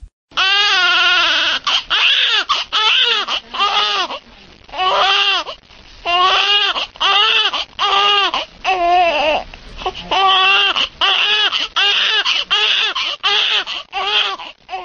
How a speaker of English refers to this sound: So that the sound of a baby crying, it's the uh, if, if you're not at all connected to a situation, you're like in an airplane or something, then it's just really annoying.